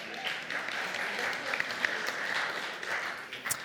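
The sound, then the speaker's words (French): An audience applauds the caribou, named as a long-distance walker, a dense wash of many hands clapping at an even level for a few seconds, with a few sharper individual claps standing out near the end. “C'est un marcheur, bravo, ouais, on peut l'applaudir.”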